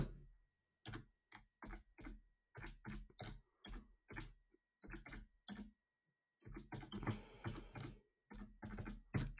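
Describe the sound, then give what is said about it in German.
Computer mouse or keyboard clicks in short irregular bursts, fairly quiet, with a denser flurry of clicking toward the end as someone searches on a computer; no one speaks. “Ihr hört das Klicken.”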